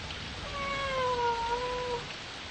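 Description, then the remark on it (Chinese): Hamish, a big yellow cat, lets out a single long, drawn-out meow that holds a mid-high pitch and sags slightly toward the end, sounding over a steady soft background hiss. “哈密士叫啊叫啊。还是没有人听到。”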